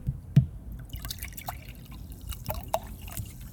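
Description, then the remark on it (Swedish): Fairly quiet lemon-flavoured Loka sparkling water, with much of its carbonation gone, being poured into a glass, with irregular drips, small splashy clicks and only slight fizz, no voices. “Ja, jag kör en Loka, citronloka. Jag tänkte det skulle eh, låta mer men eh, mycket kolsyran har ju försvunnit.”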